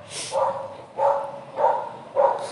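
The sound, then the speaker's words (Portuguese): A dog barks four times in a steady rhythm, each bark short and moderately loud, with brief pauses between them and no one talking. “Cara, esse cachorro aqui.”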